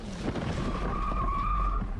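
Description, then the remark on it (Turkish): A motorcycle skids with a long, rising tire squeal over steady road and engine noise, fairly loud, with a brief thump early on, as it crashes into the taxi ahead in slowing traffic and flips over. “Hiç durmadan yoluna devam ederken duraksayan trafiği hesaplayamadı. Öndeki taksiye çarpıp takla attı.”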